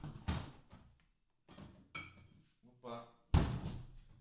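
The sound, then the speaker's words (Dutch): A fridge door opens with a soft thump as a bottle of tonic is taken out, and later shuts with a sharper slam, with rustling handling sounds and a brief bit of voice in between. “Die pak ik gelijk even uit de koelkast.”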